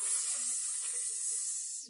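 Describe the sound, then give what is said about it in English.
Steady fizzing of soda with dissolving Alka-Seltzer, a dense bright hiss of tiny bubbles that holds at an even level for about two seconds, with no voices. “And a way that we can do that is a combination of soda and Alka Seltzer, which will give you a recurring little”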